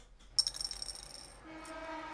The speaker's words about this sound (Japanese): 鈴木さんはお正月静かな恋愛で一人サイコロを振っていました